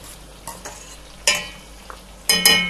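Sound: meatballs sizzling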